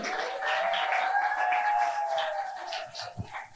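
An audience applauding steadily, a dense wash of clapping that holds at an even level for several seconds, with a thin sustained tone running through it before the applause eases slightly.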